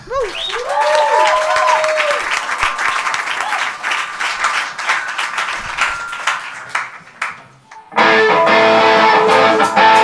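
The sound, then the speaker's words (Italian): An audience at a live music performance breaks into sustained, dense applause, with a few rising whistles early on. Near the end the clapping fades and a loud, steady, tonal sound takes over. “quindi l'unica cosa che vi chiedo, visto che devo stare zitto, facciamogli un grande applauso.”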